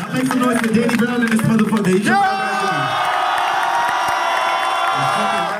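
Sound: concert crowd cheering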